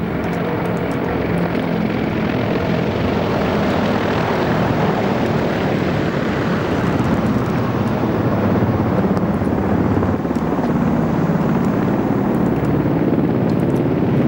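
Loud, sustained roar of military aircraft in an air parade flying low over Red Square in Moscow, Russia, including a group of five Mi-35M attack-transport helicopters, a dense rumbling wash of engine and rotor noise that holds steady throughout with no voices.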